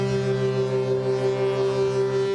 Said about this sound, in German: Beide Eisbrecher lassen die Schiffshörner aufheulen.